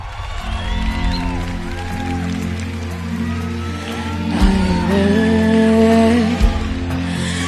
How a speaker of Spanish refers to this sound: Los jueces están aplaudiendo de pie.